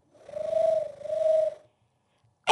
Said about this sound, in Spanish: ¿Qué es eso? Es un arrullo de palomas.